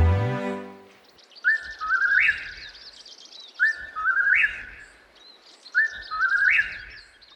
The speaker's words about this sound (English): judging the time for three whippoorwill calls. The beetle waited for a spell as the forest considered the evening, and waited, and then it heard the distant happy call.